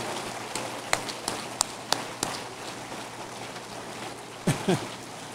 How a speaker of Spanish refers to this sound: Dele otro aplauso, merece.